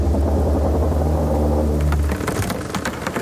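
A deep, heavy rumble fills the first two seconds, then gives way to a burst of crunching, splintering creaks as a wooden ship, going too fast, runs aground in a channel, loud, with no voices.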